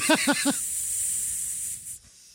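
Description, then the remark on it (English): A steady, fairly loud hiss of air leaking from a tire runs for about two seconds and then cuts off abruptly, opening with three quick squeaky tones. “Doesn't that sound like a tire losing that air? That could be a tire leak. Yeah. Yeah, it's air leaking.”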